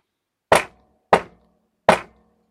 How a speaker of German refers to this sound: Und jetzt, heute, siehe, ich stehe vor der Tür und klopfe an.